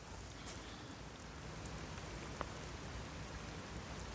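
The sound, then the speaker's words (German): Steady rain falls outdoors at Frankfurter Tor on Karl-Marx-Allee in a continuous, even hiss with scattered soft patters of drops and one sharp tick midway; no voices, just the constant wash of rainfall. “Jetzt wird es mir langsam auch ein bisschen nass hier.”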